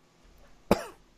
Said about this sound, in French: Il y en a un qui tousse pas mal.